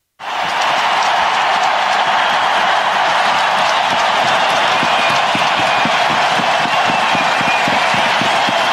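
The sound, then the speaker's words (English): A huge arena crowd roars and applauds continuously in a welcome-back celebration for Patrick Kane as he skates around under a spotlight, a dense wall of cheering and clapping that stays loud and steady throughout, with scattered whistles rising above the din. “Crowd still going wild.”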